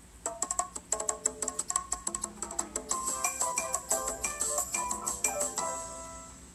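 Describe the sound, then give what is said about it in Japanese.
A short tropical island style jingle sound effect, labeled "southern island": quick, bright plucked notes bouncing along in a lively rhythm, playing alone and clearly for several seconds with no voices. “南の島って書いてありますね。”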